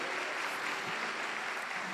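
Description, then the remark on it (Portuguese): A church audience applauds the Lord, dense steady clapping filling the whole moment with a bright, even texture and no pauses, the crowd's hands blending into continuous noise. “Irmão, como diz nosso amigo, aleluia, pode aplaudir o Senhor.”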